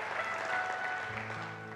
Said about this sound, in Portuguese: Amém? Você pode dar uma salva de palmas a Deus?